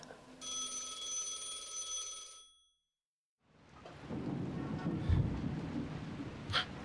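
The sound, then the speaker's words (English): A telephone in the deserted levels of a secret underground compound rings with a steady electronic tone for about two seconds, then stops abruptly. After a short silence, a loud, low rumbling roar like thunder and heavy rain takes over. “Deserted levels of a secret underground compound, and this is the third phone call he's answering.”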